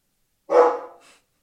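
A single loud dog bark with a short trailing tail as it fades. Nothing else is audible around it.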